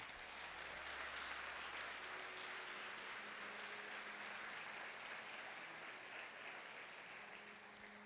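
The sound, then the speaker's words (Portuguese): An audience claps together in praise of Jesus in a sustained, dense burst of applause that holds steady for several seconds, with faint low tones and murmuring voices underneath. “Pode dar um salve de palmas para Jesus, amado.”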